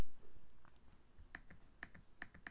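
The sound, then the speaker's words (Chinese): Quick, irregular keyboard clicks as someone types on a computer, with sharp taps clustered in short bursts and a few louder strokes toward the end, no talking. “哦，这个是电脑的声音，我也要把它录进去，你才知道其实我是有看稿的。”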